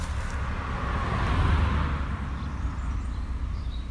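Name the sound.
car passing by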